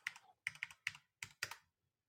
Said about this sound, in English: I hear you hunting and pecking in the background.